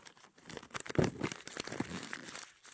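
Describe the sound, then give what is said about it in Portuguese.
Loud crumpling of crinkly material like paper or plastic, squeezed by hand in a continuous stream of dense crackles and rustles, with no talking over it. “Ele vai amassar a sua vida todinha. Todinha. Até o barulho parar.”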